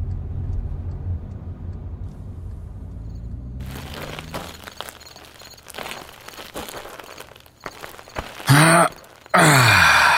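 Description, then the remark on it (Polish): Steady low engine and road rumble from inside a black Ford Transit van moving at a constant 90 km/h, loaded with furniture and artworks, then loud rushing wind noise through an open window with scattered knocks and rattles, swelling into harsh blasts near the end. “W takich to właśnie okolicznościach, ze stałą prędkością 90 km na godzinę.”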